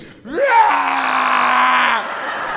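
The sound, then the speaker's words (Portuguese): A voice loudly imitates retching as if vomiting in a bathroom, a rising strained gag that swells into a long, harsh, groaning heave held for over a second before cutting off, alone. “Entrei no banheiro e comecei a vomitar. Mas sabe quando você começa fazendo barulho, que você grita?”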